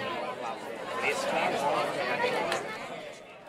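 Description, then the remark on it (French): A gathering crowd murmurs in overlapping voices, a steady babble of low astonished exclamations like "oh" and "ah" and indistinct chatter, reacting to a long-haired man proclaiming the Earth is round; it swells slightly in the middle before easing off. “La foule s'amasse petit à petit et l'on entend les gens s'étonner par des O, des A ou autres onomatopées qui montrent que ce que raconte cet homme est pour le moins étrange.”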